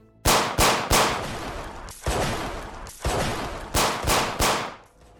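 Sharp gunshots ring out in uneven bursts on a sloping street, several quick cracks followed by loud reports with a lingering echo, forceful, with no voices.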